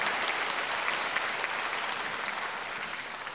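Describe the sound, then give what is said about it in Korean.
A church audience applauds the choir after its hymn of praise, steadily, a dense wash of many hands clapping at a fairly even level that tapers off slightly toward the end, with no voices standing out. “우리 격려의 박수 부탁을 드리겠습니다.”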